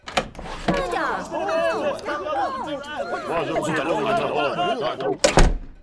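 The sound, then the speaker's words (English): A door thuds open onto a loud, busy crowd, many overlapping voices chattering and calling out at once, before another sharp door knock or slam cuts in near the end. “have you heard all the commotion? What commotion? I opened the door.”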